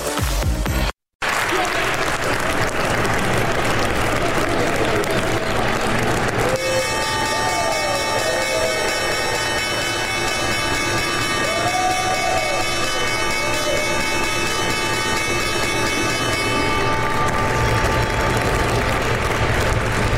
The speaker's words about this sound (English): Julia Chatterley live from the New York Stock Exchange. And that was the opening bell for Tuesday's session.